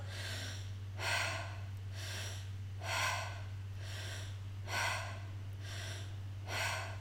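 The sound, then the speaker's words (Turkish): Slow, deep belly breaths drawn in and pushed out through the mouth, repeating in a steady rhythm of about six breaths, breathy over a low constant hum, with no talking. “Onu da bir tek ağzımızdan aldığımız nefeste yapabiliyoruz.”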